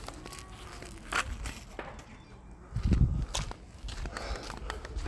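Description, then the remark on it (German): Trash being tossed into a bin outdoors: scattered crinkly rustles and scrapes, then a dull thump, with crunching footsteps and a few faint birds in the background. “Mal ganz kurz Müll wegwerfen.”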